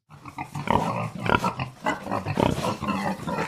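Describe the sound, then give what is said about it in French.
Three pigs grunt and squeal together in a busy, continuous squabble, fairly loud, with sharp squeals rising over the rough grunting throughout. “Voilà les trois frères cochons qui se disputent.”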